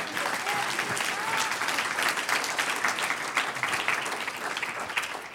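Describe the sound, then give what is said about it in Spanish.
An audience breaks into sustained applause to the Lord, a dense, steady wash of many hands clapping at an even loudness for the whole stretch, with no single voice standing out. “Un aplauso al Señor.”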